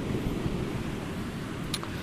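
Steady rushing surf washes over a shoreline, a continuous low roar of breaking waves with a brief brighter hiss near the end, with no voices.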